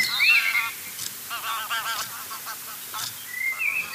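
Ducks give a rapid run of nasal, honking quacks at a lake in Bernrieder Park on Lake Starnberg, Germany, while thin, high bird whistles chirp at the start and end over a soft outdoor background.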